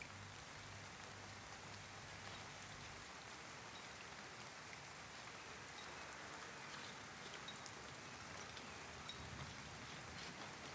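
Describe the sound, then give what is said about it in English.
Steady rain pours down on the stones and roof slates of a town square, a dense, constant hiss with scattered patter throughout and no voices. “The rain hits the stones, hits the slate of the roofs,”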